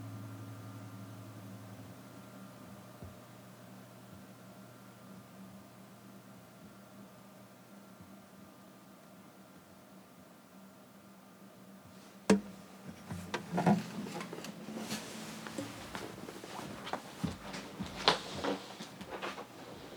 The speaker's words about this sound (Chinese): 听见了吗？就是他放下吉他，然后拿起了电话准备拨号。哎，是这么一个声音。